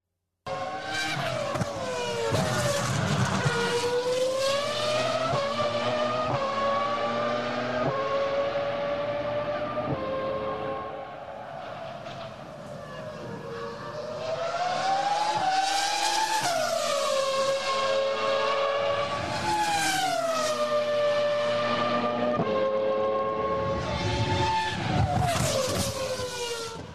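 A Formula 1 V10 engine roars at high revs, its shrill pitch rising and falling through repeated gear changes and throttle sweeps, loud and sustained for the whole stretch with no talking.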